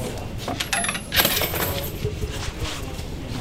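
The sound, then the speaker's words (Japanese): Coins drop into a shrine offering box, a short burst of bright metallic clinks and a rattling clatter that rings briefly before fading into a low, steady background murmur. “さあ前の方が終わりましたんでいや前の方ちょっと長めですね2杯2拍手、えー、一礼ということですが、はい、よし入れます”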